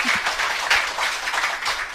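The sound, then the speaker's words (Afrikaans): Steady audience applause for a woman's reading performance fills the whole two seconds, a dense wash of many hands clapping at once, fairly loud, with no one talking over it. “Ek dink sy verdien nog 'n hande klap.”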